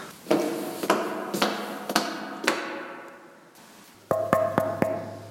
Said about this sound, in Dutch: klopte nog een keer op de buizen, niet wetende dat de bewakers hun ronde aan het maken waren.